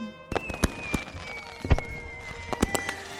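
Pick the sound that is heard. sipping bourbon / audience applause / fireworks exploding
fireworks exploding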